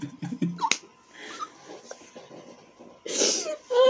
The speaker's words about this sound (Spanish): perdón. No la pude contener. Ese va a ser el intro del programa, el estornudo